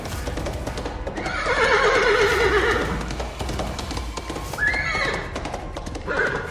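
Horse hooves clip-clop steadily on cobblestone in a cemetery as a charro rides the horse, fairly loud, while the horse lets out several whinnies over the rhythmic clatter of its steps.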